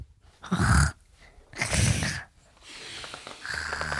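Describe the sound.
A voice imitates a small bird's twitter with two short, throaty, burp-like bursts, followed by quieter breathy noises.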